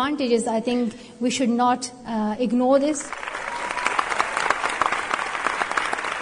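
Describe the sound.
A voice talks for a few seconds, then audience applause for Malala's speech breaks out: a dense, steady wash of many hands clapping that holds at an even level until the end.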